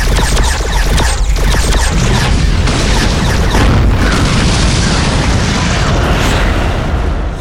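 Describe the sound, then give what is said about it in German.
A dense barrage of booming explosions and weapons fire as Hubert opens fire in a ship battle, loud and continuous, with heavy low rumble and crackling bursts layered on top of each other, no voices. “Gleichzeitig eröffnete Hubert das Feuer.”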